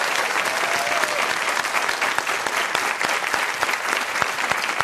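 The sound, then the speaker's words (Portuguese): A crowd claps steadily for a singer, a dense, continuous wash of many hands with sharp individual claps popping through, holding at an even, fairly loud level throughout. “Aplaudo, …!”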